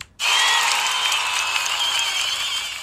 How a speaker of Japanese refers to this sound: 拍手。